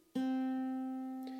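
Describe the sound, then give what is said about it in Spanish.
A C major chord strummed once on an acoustic guitar from the fifth string, fingered at the third fret of the fifth string, second fret of the fourth and first fret of the second, clear, ringing out with a slow, even decay and a faint second touch near the end. No voices. “El primer acorde es el acorde de Do mayor, que se toca con el dedo número 3.”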